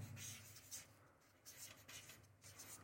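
Scratchy strokes of a failing pen scribbling on paper in several short bursts with brief pauses, quiet but clear, with no talking.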